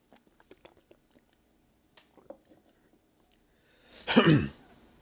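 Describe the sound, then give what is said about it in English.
Quiet mouth clicks and small wet sounds, then a short, loud slurping gulp near the end as someone takes the last tiny sip of Dr. Pepper and swallows. “I'm running low on Dr. Pepper here, but maybe I have enough to get by. And a tiny little sip left.”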